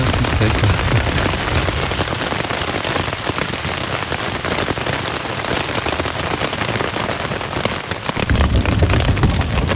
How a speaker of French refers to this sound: Ah, il tourne, hein. généralement les, orages ça tourne.